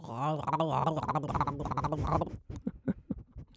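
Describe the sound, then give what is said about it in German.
A voice imitates a bubbling, gurgling throat-sac courtship call: a sustained warbling vocal burble for about two seconds, then a run of short, choppy gulping pops. “Und dann, dann haben die ja so Kehlsäcke. So, mhm. so wie Blubberbläschen, so ein bisschen wie, wie Frösche.”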